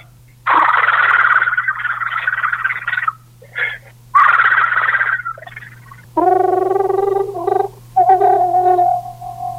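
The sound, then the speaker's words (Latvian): A person imitates a green toad's long trill, fairly loud: two long, breathy rolling bursts, then several voiced, buzzing trills separated by short pauses, over a low steady hum. “Dziesma līdzīga arī milzu krupie dziesmai, arī līdzīga, bet daudz garāk skan tā skaņa.”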